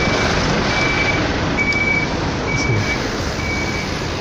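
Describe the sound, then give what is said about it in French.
A truck blocking the whole sidewalk beeps its backup alarm steadily, about five evenly spaced high tones, over a loud, constant rumble of diesel engine noise. “c'est le nom euh, sur, le, sur le camion qui bloque tout le trottoir, tout le passage euh, ici.”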